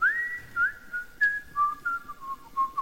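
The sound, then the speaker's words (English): A person whistles a short melody, the clear pure tone gliding and stepping between notes in a steady, unhurried phrase, with no talking. “You'll be whistling away to yourself later on in the day.”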